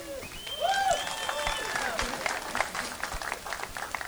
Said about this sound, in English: I really didn't need applause, but thank you for that. We appreciate it.